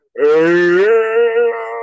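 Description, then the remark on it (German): A person fakes a long, drawn-out yawn, a single sustained voiced moan that opens breathily and holds steady for nearly two seconds, fairly loud. “kennst du diese Fake-Gähner”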